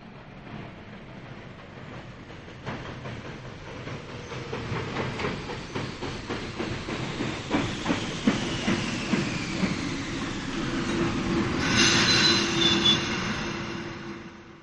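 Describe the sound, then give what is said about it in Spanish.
A train rumbles along with steady clickety-clack wheel beats, then brakes to a stop as a high metallic brake squeal rises and hisses near the end. No voices. “Horas después, lejos aún del amanecer, el tren comenzó a frenar y se detuvo.”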